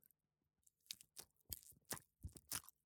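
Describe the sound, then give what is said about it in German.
A voice imitates quiet pickle crunching and chewing: several soft, crackly bites in an uneven rhythm, with brief pauses between them and no speech. “Und dann nehmen sie so eine Essiggurke und fangen so also, also quasi”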